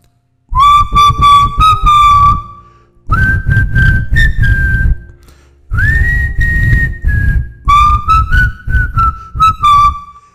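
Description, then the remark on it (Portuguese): A person whistles a short melodic tune in four phrases, imitating a character's signature whistle from a TV series, with sustained and gliding notes and brief pauses between them, loud, with no talking. “Tem um assobio específico, característico dele na série, que eu vou até fazer para quem conhece aqui, que é mais ou menos assim, ó.”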